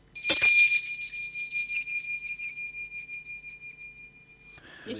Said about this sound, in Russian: Дамы и господа, это был валдайский колокольчик.